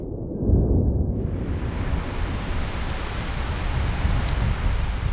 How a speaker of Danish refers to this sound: Havet står lavt. Stranden er brede og vestenvinden river i det blotlagte landskab. Sandet fyrer.